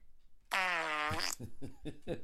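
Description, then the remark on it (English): A loud, buzzy fart sound effect played from an app, with a steady tonal drone lasting about a second, then breaking into a few sputtering bursts as it trails off. “I had to listen to a goddamn commercial about Cookie Jam just to get my fucking favorite fart noise.”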